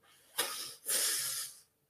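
Two quick sniffing inhalations through the nose, a short one followed at once by a longer, stronger one, airy with no talking: the double inhalation made when smoking.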